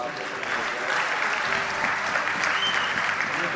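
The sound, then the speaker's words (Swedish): An audience at Nyhemshallen during the Pentecost weekend of 2023 applauds steadily to welcome a speaker, a dense wash of many hands clapping at an even, sustained loudness throughout, with no voices breaking through. “Hej honom en applåd också.”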